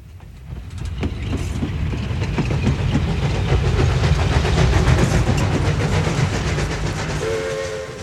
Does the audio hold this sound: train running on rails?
yes